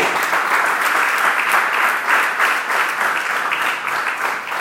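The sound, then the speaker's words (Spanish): Sustained applause from an audience, given to Christ, a dense crackle of many hands clapping at a steady, loud level for several seconds without pause. “Denle un aplauso, pero a Cristo.”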